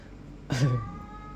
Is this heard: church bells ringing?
no